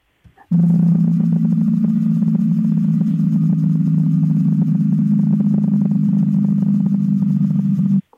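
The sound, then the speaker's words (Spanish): A steady, low humming tone of around 300 hertz, the low-frequency part isolated from the sound of a damaged bearing, drones continuously for about seven and a half seconds, loud and unwavering, with a faint rough buzz layered over it before cutting off abruptly. “aparece una frecuencia de, baja, una frecuencia muy baja, en torno a los 300 hercios más o menos”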